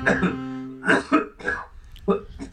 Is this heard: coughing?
yes